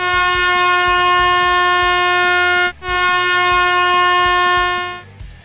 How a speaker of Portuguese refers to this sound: Beleza, meu medo não se concretizou. Muito bom. Uma buzina garantida.